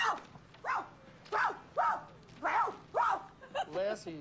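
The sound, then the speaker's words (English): Actress Karen Allen barks like a dog: about six sharp, yelping barks in a fairly steady rhythm, moderately loud, ending in a higher whining yip. “It says there's a place that you can touch a woman that'll make her bark like a dog.”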